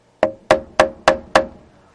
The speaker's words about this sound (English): We rang the doorbell and knocked on the door.